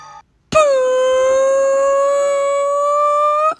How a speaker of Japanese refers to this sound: 長時間のおならでした。なんだよしかも、ギガファイル便で送ってこられたクリアな音のおなら。